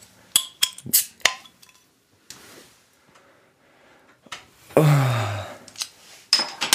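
Beer glasses clink sharply together several times in a toast, followed by a brief rushing, pouring-like sound and another bright ringing clink near the end. No one speaks.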